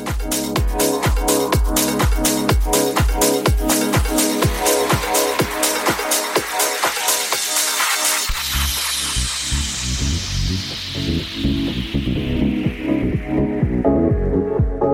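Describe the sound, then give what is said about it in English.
Soulful house dance music with a steady four-on-the-floor kick, loud and upfront; midway a sweeping filter opens into a fuller groove of deep bass and chords, with no talking. “in the mix with the soulful house sounds”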